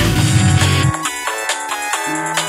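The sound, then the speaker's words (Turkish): A mobile phone rings with an incoming call from a hidden number, playing a bright, melodic electronic ringtone, its short notes repeating in a steady pattern, fairly loud and with no one talking over it. “Gizli numara kim acaba? Alo?”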